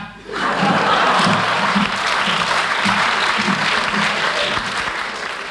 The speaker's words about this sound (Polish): Klaskać!